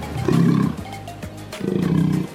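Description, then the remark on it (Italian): A sea lion lets out two deep, harsh roaring calls, each lasting about half a second with a short pause between, loud, with no talking. “assicuriamoci di avere di fronte un leone marino perché ci si può confondere con una foca.”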